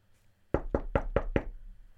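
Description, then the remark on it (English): Five quick, evenly spaced knocks on a bedroom door by a mum and dad at about half past seven in the evening, fairly loud, with a low hum in the background and no talking. “there's a knock on my bedroom door.”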